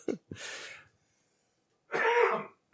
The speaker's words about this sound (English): Can you not cough in the house? There you go. Into your arm.